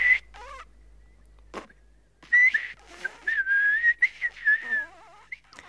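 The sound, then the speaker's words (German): In a comedy sketch, an art whistler who cannot whistle attempts to whistle: thin, wavering tones break up into breathy hisses and sputters, with gaps between bursts and no other sound. “macht sich Loriot lustig über einen Kunstpfeifer, der gar nicht pfeifen kann”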